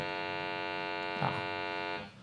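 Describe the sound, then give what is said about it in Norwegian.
A sustained, bell-like synthetic tone, a sonification of the universe, with a dense stack of harmonics rings steadily for about two seconds before fading, while a voice briefly interjects midway. “Så det her er lyden av universet. Ringeklokkaktig?”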